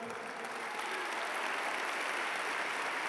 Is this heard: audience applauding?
yes